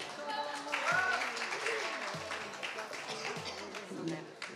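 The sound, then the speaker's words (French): An audience at a live radio show recording applauds itself in a dense, steady wash of clapping that holds for several seconds, with voices and a few cheers mixed in underneath. “Vous pouvez vous applaudir aussi, il n'y a pas de raison.”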